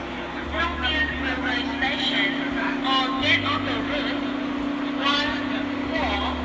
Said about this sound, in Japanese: ちょっとバスの中の音をちょっと聞いてみますかねこんな感じです